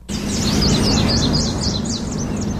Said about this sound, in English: Hey, let's hear that silly call of yours. Yeah, beep beep. Sounds like a toy model of an old Volkswagen.